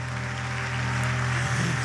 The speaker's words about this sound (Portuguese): Irmãos, vamos aplaudir o Espírito Santo de Deus pela vida do irmão Robson.